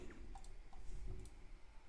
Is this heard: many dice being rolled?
yes